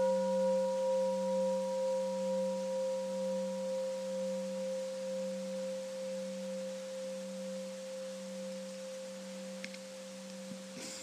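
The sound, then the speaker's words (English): A mindfulness bell rings out on its own, its deep, wavering hum and bright overtones sustaining for many seconds while slowly fading away in the quiet. “Can we listen to the sound of the bell?”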